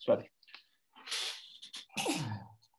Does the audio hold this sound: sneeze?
yes